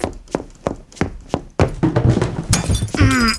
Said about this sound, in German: Mit dem Kaffee in der Hand läuft er in sein Büro, stolpert und schneidet sich an den Scherben der Tasse die Hand auf.